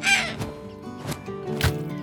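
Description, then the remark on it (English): A harsh bird squawk cries out as the bird is struck and killed by a windmill, followed by two more raspy calls spaced about half a second apart over a steady background hum, with no one speaking. “Was that a bird? Ew, gross. Did that bird just get killed by a windmill?”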